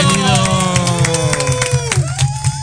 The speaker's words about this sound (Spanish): Bienvenido, un aplauso.